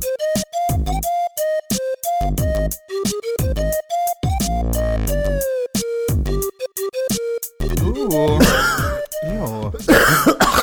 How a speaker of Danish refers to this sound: Ej, vi kan ikke have det helt afsnit, hvor du hoster så meget igen. det kan vi ikke.